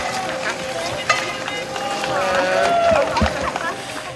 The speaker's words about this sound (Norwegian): Medfanger henger ut av vinduene og klapper og hoier og roper, mens Viggo Kristiansen da sitter inne i bilen og smiler tilbake til de innsatte og vinker til dem